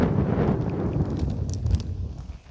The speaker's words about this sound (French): Et voilà, donc il y a beaucoup de vent. Je sais pas si vous entendez ce que je suis en train de vous dire.